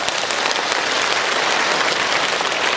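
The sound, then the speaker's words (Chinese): Steady applause from an audience, a dense, continuous patter of many hands clapping at an even loudness throughout, with no voices rising above it. “我们一鼓掌，台长就吃课堂。”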